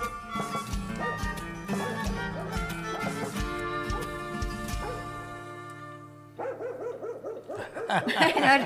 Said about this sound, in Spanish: Todavía ladra el perrito, ¿no? Muchas gracias. El ladrido del perrito.